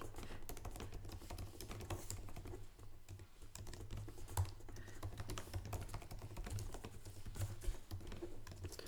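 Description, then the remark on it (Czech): Steady computer keyboard typing as a wish is written into a note, a quick irregular patter of soft key clicks running throughout with brief pauses and a few sharper taps, with no one speaking. “přání si napiš do poznámky. Tak jo, tak jo, tak počkej. Tak já si tam eh, napíšu.”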